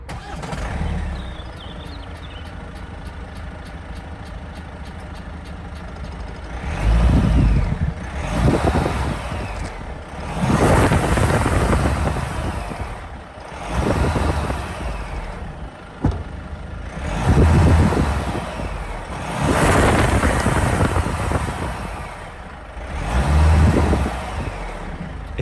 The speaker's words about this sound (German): Klingt nach einem Diesel. Es ist ein Diesel. Als hätte ich es gewusst. Schau mal an. Heute sprechen wir über den Kia Sorento. Ein großes SUV.